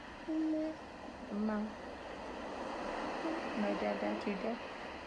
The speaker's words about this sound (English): We always have our music playing for the kids. I love ocean sounds.